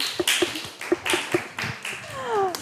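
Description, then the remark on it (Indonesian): A short burst of scattered hand clapping, around eight sharp claps in an uneven rhythm, fairly loud, with faint murmuring voices in the background. “tante ada, siap, wis mantap, mantap luar biasa, tepuk tangan dong.”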